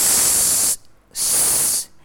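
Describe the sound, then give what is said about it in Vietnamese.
A voice pronounces the consonant s twice in a pronunciation lesson, pushing air between the tongue and the upper front teeth: two long, loud "sss" hisses, each lasting under a second, separated by a brief silence. The sharp, bright hiss resembles escaping air or a spray. “nghe như tiếng xì xà xì xào”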